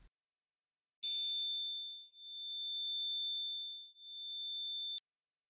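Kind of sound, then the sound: sound effect, high-pitched ear ringing tone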